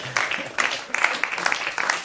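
An audience breaks into steady applause, many hands clapping in a dense, crackling wash that stays fairly loud for the whole couple of seconds, with no one speaking over it.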